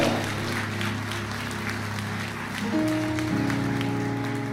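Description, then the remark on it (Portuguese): An audience applauds loudly for Jesus at a church service, a dense, steady wash of clapping that lasts the whole clip, with sustained keyboard chords underneath that shift to new notes partway through. “Então dá um glória a Deus e aplaude Jesus bem forte.”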